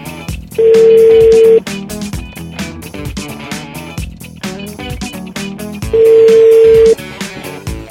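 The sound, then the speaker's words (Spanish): A telephone ringback tone sounds twice while calling someone once more, each a steady one-second beep about five seconds apart, heard over loud, busy background music. “Déjame calarle una vez más.”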